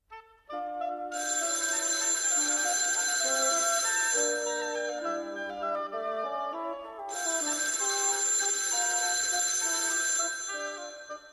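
A telephone rings in two long, bright, shrill bursts separated by a short pause, loud and steady, with a faint tonal melody underneath and no one talking.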